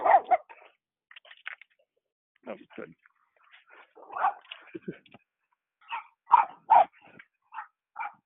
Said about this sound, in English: Oh my goodness, there's a little puppy here, actually sniffing at him and not attacking him, which is nice.